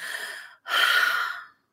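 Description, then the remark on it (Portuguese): Two ragged breaths, a softer intake then a longer, stronger one, like shaky sobbing breathing after crying, with no talking. “porque engolia o choro e parou de chorar soluçando, não conhece o poder de parar de chorar assim”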